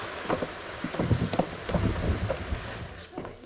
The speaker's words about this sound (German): hast du den Regen aufgenommen? Hast du als Originalgeräusch? Oh, wie geil. Wie der so prasselt.